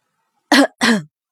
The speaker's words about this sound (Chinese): 一旁的鬼宿重重的咳嗽了两声